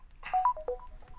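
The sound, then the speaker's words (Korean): A phone call being hung up without a goodbye: a quick run of short electronic beeps and a soft click, fairly quiet, with no voices. “고지는 언제나처럼 제 말이 끝나자 인사 없이 전화를 끊어버린다.”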